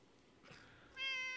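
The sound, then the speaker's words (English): A cat lets out a single loud, drawn-out meow, preceded by a softer short vocal sound, with no one speaking. “Let me handle some cat oh, business. The cat, the cat disagrees.”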